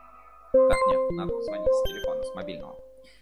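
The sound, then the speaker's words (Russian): A rapid string of about ten keypad dialing tones from a mobile phone on speakerphone, short beeps stepping up and down in pitch. “Сейчас наберем с мобильного телефона, чтобы было в эфире слышно и на громкой связи через микрофончик.”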